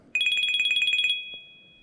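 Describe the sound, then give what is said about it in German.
An Apple Watch ringtone, made from actual recordings, plays a rapid series of about a dozen bright, high-pitched electronic pulses, then settles into one sustained tone that fades out. No one speaks. “So we decided to use this as an inspiration and we use these actual recordings for some of the sounds that are on your watch today like the notification and the watch ringtone.”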